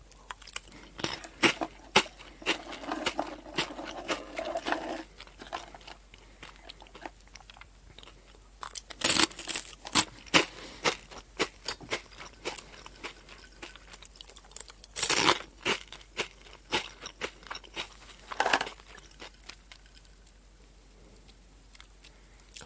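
Someone crunches and chews Potelong crispy potato snack sticks, a steady run of dry, crackly bites with a few louder snaps standing out, and no talking.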